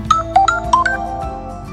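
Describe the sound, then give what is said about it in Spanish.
A smartphone notification chime, alerting that something new has been received, plays a quick run of bright, bell-like tones, about five short notes in a rising-and-falling melody, clear, over a soft sustained background hum. “Así es como me alerta el celular que algo nuevo he recibido, quizás una promoción un mensaje, o me recuerdo que mi clase virtual ya va a empezar.”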